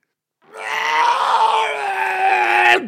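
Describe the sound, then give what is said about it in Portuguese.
A voice imitates retching and vomiting with one long, strained, groaning gag, loud, held for over two seconds before cutting off abruptly. “Logo meti a chave à porta, foi mesmo. Pá, vomitar a porta toda.”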